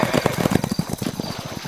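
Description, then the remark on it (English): The hooves of two horses clip-clop in a quick, steady rhythm, the sharp clatter of several hoofbeats loud, gradually growing a little fainter as they move away. “And now your two horses ain't gonna be bothering you no more neither.”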